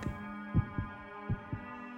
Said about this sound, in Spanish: Pero el latido crecía cada vez más fuerte y más fuerte. Me pareció que aquel corazón iba a estallar.